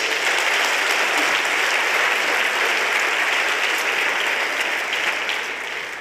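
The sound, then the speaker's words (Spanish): Loud, sustained applause from a large audience, given to Jesus, fills the space, a dense wash of clapping that holds steady throughout and eases slightly toward the end. “De un aplauso fuerte a Jesús.”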